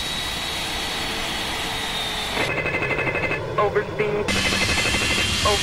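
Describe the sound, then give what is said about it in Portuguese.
A cockpit overspeed warning in an MD-80 airliner that has suddenly entered a dive starts partway through: a rapid, rattling clacker repeating steadily over a constant jet engine roar, with a few brief tonal chimes mixed in. “O alarme de velocidade excessiva começa a soar na cabine.”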